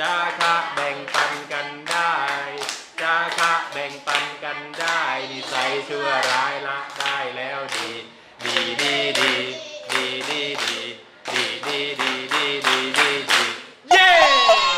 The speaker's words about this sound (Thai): และนี่คือเสียงบรรยากาศในห้องเรียนนะคะคุณผู้ฟัง